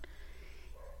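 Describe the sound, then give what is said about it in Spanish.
Faint dogs barking, a quick sharp yap at the start followed by drawn-out, whiny barking tones over a low steady background hum. “perdón por los perros, no son míos.”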